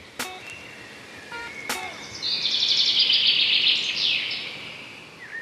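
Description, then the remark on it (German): Birdsong chirping outdoors: two sharp clicks or chips, then a bright, rapid warbling trill lasting a few seconds, clear over a faint background hiss. “da kann das vielleicht auch noch eine kleine Unterstützung sein, nämlich rauszugehen, tief durchzuatmen und ein bisschen Vogelgezwitscher zu hören.”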